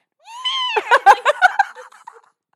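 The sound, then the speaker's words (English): A fairly loud meow from a female cat, made while a person is messing with her, rises in pitch, then breaks into a choppy, stuttering yowl before trailing off. No one talks over it. “that was exactly the noise.”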